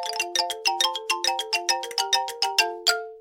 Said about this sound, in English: Oh, wait, that's my doorbell again.